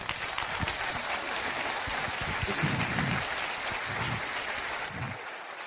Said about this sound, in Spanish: Muchas gracias para ellos. Un fuerte aplauso.